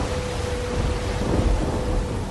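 Steady, hissing rain with a deep, low thunder rumble that swells midway and then fades back into the downpour. No voices.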